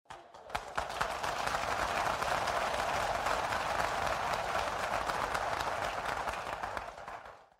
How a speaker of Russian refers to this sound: После паузы зал взорвался аплодисментами. Простая советская девушка устыдила тысячи солдат.